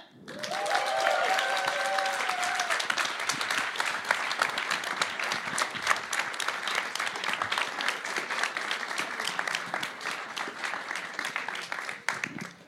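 Sustained audience applause at a live show at Studentforum in Trondheim as two men are introduced, a dense wash of many hands clapping at steady loudness for about twelve seconds, with a few brief whistles or cheers near the start before it fades out.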